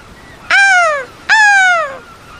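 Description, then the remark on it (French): A seagull perching at the top of a small sailboat's mast gives two loud, piercing cries in quick succession, each a harsh, sliding call that drops in pitch, with no voices around. “Un cri perçant descend du ciel. C'est une mouette qui se perche en haut du mât.”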